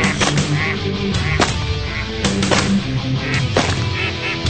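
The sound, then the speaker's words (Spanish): Loud, busy honking and quacking from waterfowl, sounding like ducks, fills the scene, punctuated by several sharp, sudden bangs spaced a second or so apart. “Somos patos.”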